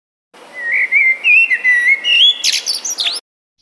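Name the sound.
common blackbird song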